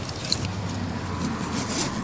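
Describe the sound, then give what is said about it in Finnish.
Car keys jangle in short metallic bursts as a car is locked at Tammela market square, with one sharp clink early and more jingling near the end, over a steady low rumble of a car and outdoor background noise. “Ah, taas sitten laitetaan auto kiinni ja varmasti yritän ajatella, että laitan oikealle puolelle oikeisiin taskuista.”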